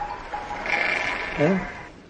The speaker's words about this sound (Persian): خب ببرم اون جلو که صدا گاو گوسنده زیاد میشه